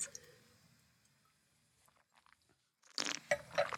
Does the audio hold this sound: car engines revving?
no